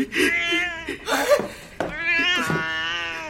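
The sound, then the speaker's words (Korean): A cat meows several times in quick succession, drawn-out and whiny, loud, with the cries running almost back to back and no one speaking. “고양이였어?”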